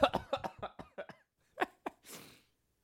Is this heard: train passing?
no